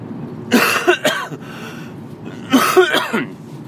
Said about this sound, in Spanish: Sigo con este resfriado, aunque parece que voy a mejor, pero los mocos ahí están y me producen tos, así que estoy volviendo a mis orígenes, ¿eh? ¿Os acordáis cuando tosía muchísimo?